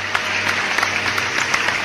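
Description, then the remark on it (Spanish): A crowd applauds steadily, many hands clapping in a dense, continuous patter, with no voices standing out. “Los aplausos recibidos, emociones encontradas, satisfacción, admiración, reconocimiento, orgullo de padres, de tu chica, de hermanos, de amigos,”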